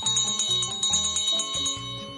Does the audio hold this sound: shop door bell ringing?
yes